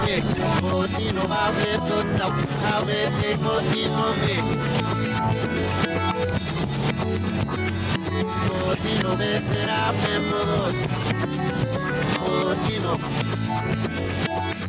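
A pop song plays in reverse, its backward vocals and instruments forming a dense, steady wall of music at a loud, constant level throughout, with no one talking over it.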